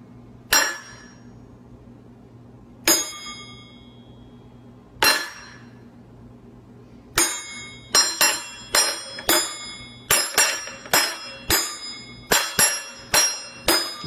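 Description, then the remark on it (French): A boy strikes dishes to make music: a few slow, bright ringing clinks, then a quicker rhythmic run of pitched, bell-like hits that decay briefly between strikes. No voices. “Alors le four, la machine à laver, c'est bien, mais avec la vaisselle, c'est encore mieux.”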